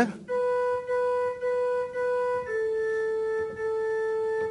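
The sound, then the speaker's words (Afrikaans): A slow single melody line played on an organ-like keyboard: the soprano part of a hymn, about five sustained notes moving gently from one to the next, clear and steady with no talking. “Nou ja, nou sien ek weet nou die sopraan klink so.”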